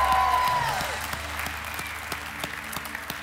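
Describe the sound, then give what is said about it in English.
A church audience bursts into loud, sustained applause mixed with cheering and shouted praise to God, a dense roar of many hands and voices before gradually thinning out. “Yeah, if you believe that our God deserves praise no matter what season you're in, let's give him a loud shout of praise today.”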